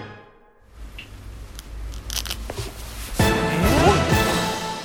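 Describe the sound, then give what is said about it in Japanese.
Quiet rustling and a few small snaps, then a louder burst of crackly, zipper-like ripping as body hair is pulled out, lasting about a second and a half before fading. “血毛を抜いてみた音だきたね相当生えてるよあれすごいあのちょっとビリビリビリ言ってたもん”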